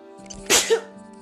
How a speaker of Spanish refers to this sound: Ay, perdón. Eh, perdón. Me ha venido un estornudo, pero bueno, lo dejo. Lo dejo aquí grabado, ¿no? Las cosas del directo.